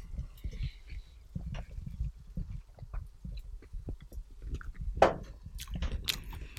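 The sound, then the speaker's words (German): Wet smacking and chewing noises repeat in an uneven rhythm, with one sharper, louder smack near the end and no talking. “Weil die schmatzen und so.”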